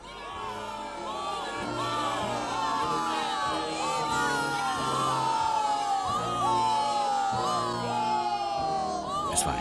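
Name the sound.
crowd cheering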